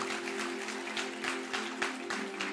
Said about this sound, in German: Hey, deswegen an Hintersteller einen riesen Applaus an unseren Standort in Loop. Es ist so schön, dass ihr dabei seid.